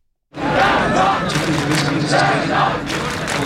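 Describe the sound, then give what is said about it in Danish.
A large crowd of football fans stamps their feet amid loud shouting in front of a big screen at Musikhuset in Aarhus, making a dense, continuous roar with a thudding rumble underneath that begins abruptly and holds steady for about three seconds. “Lad os bare prøve at høre her, hvordan de mange fans, de tripper med fødderne foran storskærm ved Musikhuset i Aarhus.”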